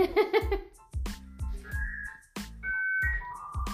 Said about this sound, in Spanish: Ese sonidito era el que nosotros escuchábamos cuando queríamos conectarnos a internet.